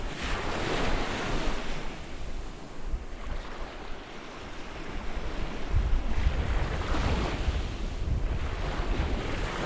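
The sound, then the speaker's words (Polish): Rough sea surf churns continuously, with heavy waves swelling and breaking in broad surges around the third and seventh seconds, mixed with gusty wind buffeting the microphone. No voices. “stały szum, taki no na przykład morze jest mocno wzburzone i ten dźwięk w środku się nie zmienia tak bardzo, to wtedy on przestaje rzeczywiście się kojarzyć z falami.”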